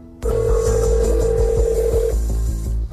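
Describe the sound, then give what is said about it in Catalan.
A steady electronic telephone tone hums loudly for about two seconds before cutting off, with a rhythmic low pulsing beat running underneath throughout, as Alexei Navalny phones a person from a list of suspects. No one speaks. “els números de telèfon, i és el mateix Navalny, sense amagar qui és, qui truca el primer per eh, informar-se.”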